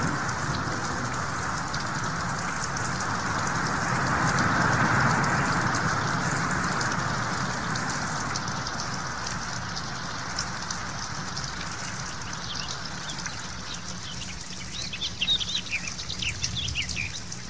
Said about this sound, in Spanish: Entonces comenzó a llover. La lluvia era tibia, la sentía contra los pies y luego me dormí.